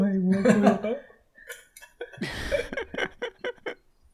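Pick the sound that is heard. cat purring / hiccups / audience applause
hiccups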